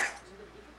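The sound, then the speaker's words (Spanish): A single sharp, fairly loud sneeze from an allergy bursts out at the very start, then quickly fades into quiet. “salud.”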